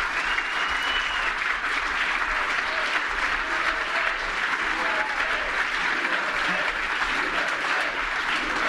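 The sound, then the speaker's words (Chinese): A large crowd chants "USA" over a steady roar of applause and cheering that stays loud and dense throughout, with no single voice standing out. “民众在大喊 “USA”，美国。”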